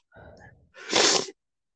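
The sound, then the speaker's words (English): A short sniffle from a cold: a soft voiced breath, then one loud, harsh, breathy nasal burst lasting about half a second, alone with no talking. “Pardon the sniffling, everyone. I'm getting over a cold.”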